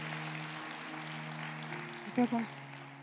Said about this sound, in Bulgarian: О, ръкопляска, ако вярваш, че това е нашия час.